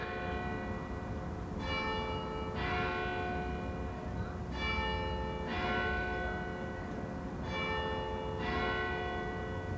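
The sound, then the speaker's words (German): The bells of two churches, a Catholic and a Reformed church, heard from a garden, with the Catholic one very near, ring steadily, their overlapping strokes coming in a regular rhythm with bright, sustained tones layered over a constant low background rumble. “Zum Beispiel da die Killenglocke. Bei mir im Garten hört man zwei. Die katholische und die reformierte Kille.”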